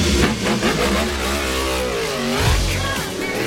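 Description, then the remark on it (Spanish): Racing motorcycle engines at the Jerez Ángel Nieto circuit during the Spanish Grand Prix of the Motorcycling World Championship rev loudly and continuously, their pitch climbing and dropping as they accelerate past, with no talking over the roar. “Han comenzado ya a rodar las motos en el circuito de Jerez Ángel Nieto.”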